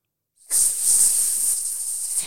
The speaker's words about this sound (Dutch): Trouwens, ze kunnen wel geluid maken. Weet je wat het geluid is van een koningscobra?